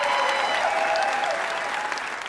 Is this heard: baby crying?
no